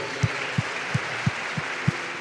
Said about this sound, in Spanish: En el nombre de Jesús, dale un fuerte aplauso al Rey de Gloria.